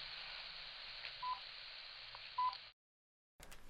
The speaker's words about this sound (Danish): det er en, øh, en lille måler, som registrerer, hvis der kommer for høj energi, så begynder den at bippe. Så begynder den så at bippe lige pludselig, uden nogen grund.